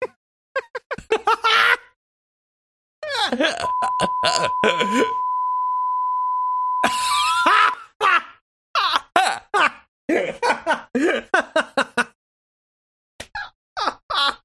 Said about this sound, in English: we can beep that out.